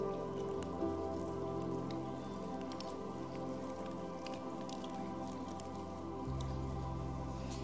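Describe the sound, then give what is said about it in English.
Scattered crinkly crackles and soft tearing of the second layer of plastic seals being peeled off small communion cups, many at once, over a steady low room hum with no one talking. “You can peel back that second layer.”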